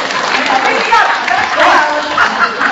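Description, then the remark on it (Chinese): Dense, steady audience applause at a performance in Shenyang's Qunzhong Cinema (群众电影院) runs throughout, a continuous wash of many hands clapping at an even loudness, with crowd voices blended into the noise. “还在鼓掌，给我打电话啊！”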